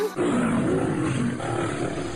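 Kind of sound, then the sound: sound effect, lion roar sound effect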